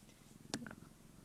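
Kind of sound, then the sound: animal, cat purring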